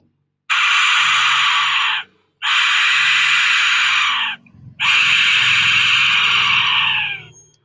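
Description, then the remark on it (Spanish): An Aztec whistle blown in three long, loud blasts, each a harsh, shrieking, scream-like tone lasting over a second, separated by brief pauses. “No, no es un globo desinflándose, no. Es el Hekashisti, mi silbato.”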